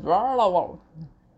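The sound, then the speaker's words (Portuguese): A voice imitates a stomach growling from hunger with a short, wavering hum that rises and falls in pitch, followed by a faint low murmur, fairly loud. “Aí eu peguei, escutei meu estômago fez um barulho assim.”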